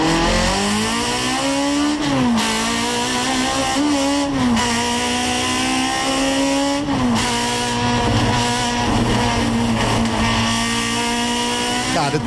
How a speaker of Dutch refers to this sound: Adriaan, je rijdt hier met de BMW 2002, hè, de 2002. we hebben daar ook geluid van. Misschien is hij ondertussen ook wel voorbij gekomen. Maar laten we even horen dat geluid, hoe dat dan klinkt.